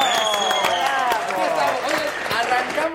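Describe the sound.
An audience applauding steadily for a few seconds, dense overlapping claps with voices and harmonic vocal sounds mixed through, fairly loud and continuous throughout.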